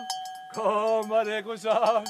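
Cowbells clink briefly near the start, then a dairy farmer's drawn-out, melodic calling voice rises over the bells as he calls his cows at the mountain summer farm Sætra Søstu Eivangen, 800 meters above sea level in Svarthamerlia, Tyldalen, Nord-Østerdal, fairly loud.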